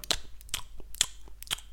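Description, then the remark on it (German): Wet chewing-gum smacks from presenters chewing gum, four or five sharp moist clicks in an uneven rhythm, with softer mouth sounds between them and no talking. “Und die schmatzen auch die ganze Zeit. Ja. Das hört sich folgendermaßen an.”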